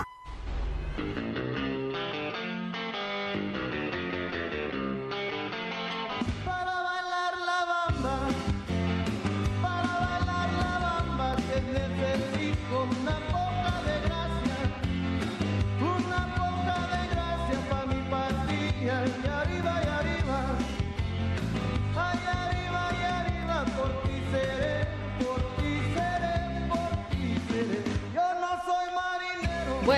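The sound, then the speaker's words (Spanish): A lively 1950s rock and roll song with Spanish-language singing plays loud and full over a driving beat, with brief breaks in the band near the start and again near the end. “siempre es buen momento de escuchar …, está en esta ocasión en voz de …”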